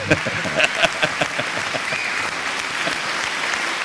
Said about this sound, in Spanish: Un aplauso a la lista, qué grande. Vale, gracias público, gracias, gracias. Gracias público.